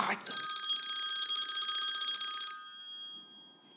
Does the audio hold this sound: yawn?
no